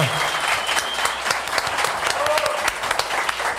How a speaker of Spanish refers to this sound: Muchas gracias a todos los que vinieron aquí. Eh, gracias a todos los besties que están en casa. Eh, uy, sí, un aplauso, cómo no.